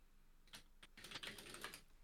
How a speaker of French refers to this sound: Euh, Donc on t'entend frapper sur ton clavier.